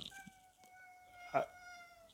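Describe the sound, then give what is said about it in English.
A cat gives a long, drawn-out meow in the background, faint and steady, with a brief louder burst near the end. No one speaks. “and my cat is making noise in the background.”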